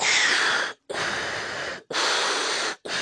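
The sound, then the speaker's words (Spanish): A voice imitates Darth Vader's mechanical respirator breathing with loud, hissing breaths, about three and a half in a steady in-and-out rhythm, each lasting nearly a second and separated by brief silences, with no talking. “como, como así, como una máquina, ¿sabes? Así como respira él, esa, esa respiración tan, característica que tiene Darth Vader, ¿no?”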